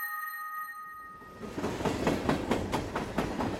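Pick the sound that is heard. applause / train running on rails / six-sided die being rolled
train running on rails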